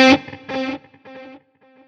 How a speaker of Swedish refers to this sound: Om man lyssnar på, ta, ta, en ton så lyssnar vi på studsen bara.